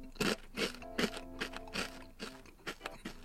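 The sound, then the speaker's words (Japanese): Crisp Jagarico potato snack sticks in yakitori salt flavour being crunched, about eight sharp bursts in a steady chewing rhythm, each a bright crackly burst, with a faint low hum underneath and no talking. “サクサクしてる。”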